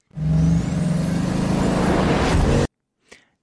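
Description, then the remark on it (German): A Bugatti Chiron sports car accelerates hard from 0 to 100 in about two and a half seconds, its engine roaring loud and rising in pitch, then cuts off abruptly, followed by a brief faint hiss. “Das sind genau 2,5 Sekunden gewesen vom Bugatti Chiron.”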